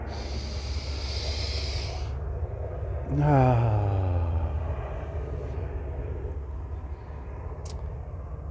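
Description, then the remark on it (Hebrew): Helicopter noise: a steady, loud low rumble throughout, with a whining tone that swells and then slides downward in pitch partway through. A person briefly voices a short sound. “עם הרעש של ההליקופטר.”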